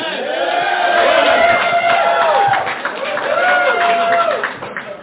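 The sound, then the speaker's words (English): A loud crowd cheers, whoops and applauds Jaeger for the full five seconds, many voices rising and falling in overlapping shouts, with scattered clapping mixed underneath. “You're the only people who applaud Jaeger.”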